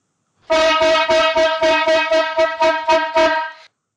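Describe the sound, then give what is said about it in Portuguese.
A loud horn blares in a rapid series of about ten rhythmic blasts, a bright brassy tone pulsing steadily for a few seconds before cutting off, with no one talking; a horn sound effect introducing a segment. “mas antes, vamos para a corneta aleatória de hoje.”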